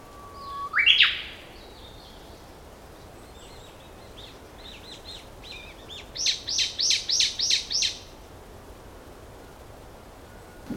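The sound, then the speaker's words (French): Wetland birds chirp in an open outdoor setting at Seol San Wetland in South Korea: a sharp rising call near the start, scattered soft notes, then a quick run of five or six bright repeated chirps before fading to quiet background hiss. “Et alors du Québec, euh, on fait un saut en Corée du Sud pour écouter euh, ce qui se passe euh, du côté de Seol San Wetland.”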